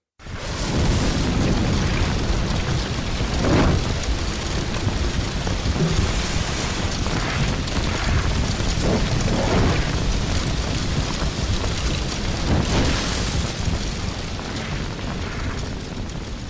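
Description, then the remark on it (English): A big fire, the inferno of a burning town bus barn, roars steadily throughout, a deep, loud rumbling wash of noise broken by sharp crackles and occasional louder bursts, with no voices. “And it speaks. Well, it roars.”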